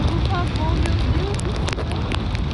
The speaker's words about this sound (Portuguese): O passeio é comum para turistas que visitam o arquipélago de San Andrés, na Colômbia. Puxado por um barco em um paraquedas, o casal admirava o mar azul do Caribe até que os ventos ficaram mais fortes.